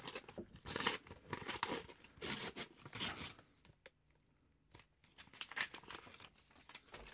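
Bursty crinkling and tearing of wrapping paper as a well-wrapped gift is unwrapped, loud rustling for the first few seconds, then quieter intermittent crackles and rustles.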